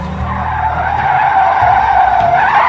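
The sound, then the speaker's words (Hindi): A car skids loudly with a long, continuous tire screech over a low engine rumble, holding steady for nearly three seconds as it slides to a halt. “गाड़ी रोककर दोनों उतर के भागना चाहते तो थे”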